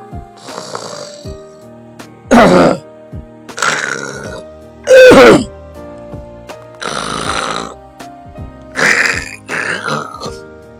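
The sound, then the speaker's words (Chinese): A voice imitates loud, exaggerated snoring for a little monkey in a children's story pretending to sleep: six harsh, rasping snores in a steady rhythm about a second apart, each rough and buzzing with a throaty rattle, with no talking in between. “这呼噜声比打雷都响。”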